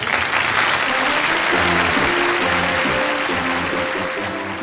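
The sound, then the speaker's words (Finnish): Sustained audience applause for the sled dog Valtto, a dense steady roar of many hands clapping at an even loudness for several seconds, with a faint tonal hum of voices or music underneath. “Ja vielä aplodit rekikoiran valtolle!”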